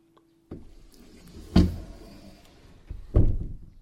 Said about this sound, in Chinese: 这时，忽然有人重重的敲门，我穿着运动衫就去开门了，结果一看，竟然是我的新班主任。